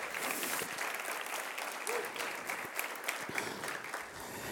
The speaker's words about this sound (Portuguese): Se você crê nisso, dê para Jesus uma forte salva de palmas.